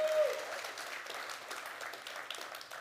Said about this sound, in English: Yep, we celebrate it all Medicare, uh, sobriety dates, uh, life milestones, and honestly, just give yourself a round of applause because we have made it through today.